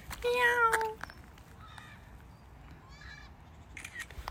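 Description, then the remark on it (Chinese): A somewhat fat cat that hops like a rabbit when it runs gives one loud, drawn-out meow with a falling pitch near the start, followed by quiet background with a few faint chirpy sounds. “呀，为了拍个猫，咦，它跑这里来了”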